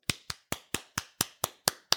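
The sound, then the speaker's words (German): A single person claps nine times in a steady, brisk rhythm, each clap sharp with nothing else audible in between. “Dankeschön, Dankeschön. Applaus, Applaus.”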